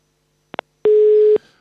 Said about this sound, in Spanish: Ahí se nos cortó. Este, Ahí se nos cortó. Así, es cuestión de celulares, ¿no?